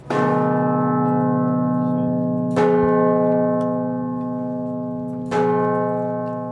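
Large church bells ring loudly in the bell chamber of St. Martin's tower in Landshut, the world's tallest brick tower, nearly 80 metres up, where ten bells have hung for centuries; three heavy strikes a few seconds apart, each blooming into a rich, sustained metallic hum that overlaps the next. No voices are heard.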